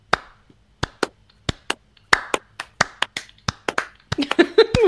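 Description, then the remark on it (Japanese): During a live stream, two people try to clap their hands together but fall out of sync, a dozen or so sharp, uneven claps that never settle into a shared beat, ending with a burst of laughter and voices over the last claps. “今、手拍子やってみますかえ 今ここで手拍子。”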